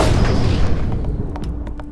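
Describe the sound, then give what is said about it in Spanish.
A loud gunshot sound effect booms and rolls away into a rumbling echo, followed by a few sharp, quieter cracks near the end. No one speaks. “Las preguntas del universo las respondo a balazos.”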